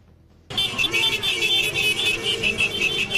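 Courier motorcycle engines rumble along a street, a loud, steady droning roar with rhythmic surges that begins abruptly after a brief moment of quiet. No one speaks.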